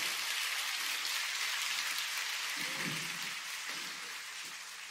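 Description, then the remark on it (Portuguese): Audience applause, a dense, steady wash of many hands clapping that holds for several seconds, with a few faint low shouts or cheers mixed in before it eases slightly at the end. “Pode aplaudir mesmo, pode pegar essa palavra.”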